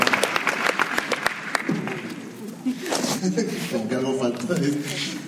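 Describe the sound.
A burst of audience applause with many hands clapping briskly, tapering off after a couple of seconds as voices begin talking over the last scattered claps.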